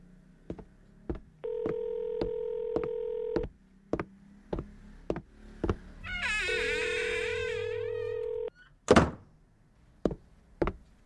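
Telephone keypad dialing as someone places a phone call: a steady series of sharp key clicks with two long, steady dial tones, a brief wavering high sound over the second, then a few more clicks. Clear, with no talking.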